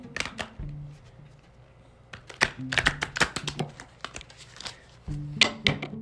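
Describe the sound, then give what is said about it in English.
A Rider-Waite deck of tarot cards being shuffled one last time before a card is pulled, with quick bursts of crisp slapping and flicking clicks, a short lull in the middle, then another flurry of card snaps. “I have the Rider-Waite's deck, and I sh- going. I'm going to shuffle one last time”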